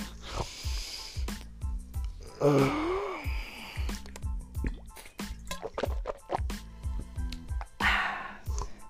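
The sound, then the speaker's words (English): Drinking water: repeated wet gulps and swallows in a steady rhythm, with liquid sloshing and breathy gasps between sips, loud, no talking. “That's the sound of H2O.”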